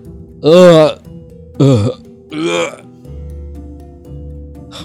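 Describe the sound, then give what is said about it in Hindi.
A man vocally imitates himself retching and vomiting while lying fallen on the ground, with three loud, strained gagging heaves in quick succession, followed by a low steady hum and quieter background noise. “मैं उल्टी कर रहा था जमीन पर गिरा पड़ा था और लगातार उबकाई आ रही थी”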